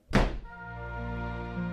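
A single heavy thud, like a door slammed shut, with a sharp impact followed by a low lingering hum and resonance that continues steadily; no voices.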